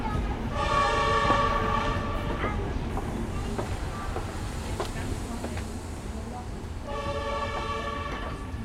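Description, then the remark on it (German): A Hessische Landesbahn regional diesel train on a single-track, non-electrified line in Germany rumbles steadily along with a loud, harmonic horn blast near the start and another toward the end, over continuous low engine and track noise with occasional clicks. “Die Züge der Hessischen Landesbahn brauchen für den Abschnitt ein Dreiviertelstunden.”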